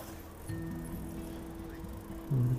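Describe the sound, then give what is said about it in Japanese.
A bicycle chain squeaks and whirs steadily while someone rides under a blazing sun, a thin persistent tone over low rolling noise, with a brief louder grinding burst near the end. “久しぶりになんかチェーンの音が鳴っちゃってますね。”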